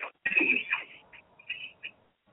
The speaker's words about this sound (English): Somebody's phone. Somebody's yeah phone.